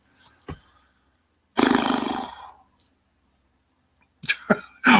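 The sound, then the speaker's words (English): A person's voice does a loud, rough imitation of a horse's whinny lasting about a second. A brief click comes before it, and a few short, sharp bursts follow. “it was my horrible imitation of a horse.”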